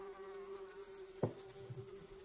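Carrion flies buzz steadily inside a jar set on a gaming table, a continuous droning hum that holds throughout, broken once by a brief soft knock partway through.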